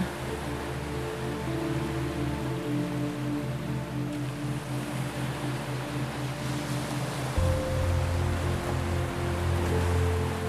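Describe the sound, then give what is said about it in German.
Steady wash of ocean surf on a sandy beach rolls on without pause, a soft continuous hiss of waves, with a low sustained humming drone underneath that deepens near the end. No one speaks. “Dann setzt du dich ein Stückchen weiter weg in den weichen Sand, lauschst dem Meeresrauschen und blickst übers Meer.”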